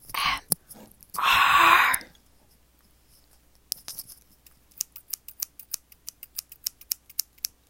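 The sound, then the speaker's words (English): Scissors open and close for ASMR in a quick series of crisp, bright snips, about fifteen in a steady rhythm, after a couple of louder rasping, breathy swishes at the start. No one speaks. “Alright, so now we're going to be doing some scissors ASMR.”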